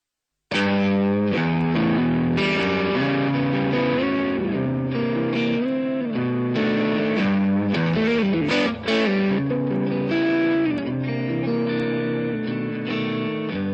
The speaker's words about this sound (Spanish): Puta que me identifico, weón, en esta etapa de mi vida con esta canción. Ah, vamos, a escuchar el temita.